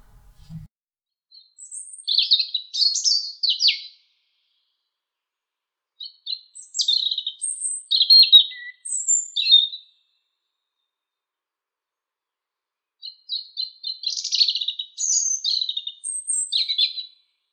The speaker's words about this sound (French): Le merle noir.